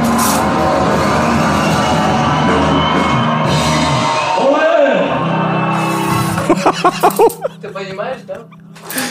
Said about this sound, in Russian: Если вы сейчас слышите некий шум на заднем фоне, то это потому, что у Леры за окном идет выпускной